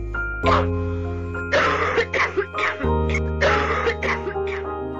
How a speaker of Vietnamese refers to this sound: Mẹ tôi đang nằm bên phòng kia ho lên những tiếng rất rõ Tôi lại vội vàng chạy sang xoa lưng cho bà rồi cho bà uống nước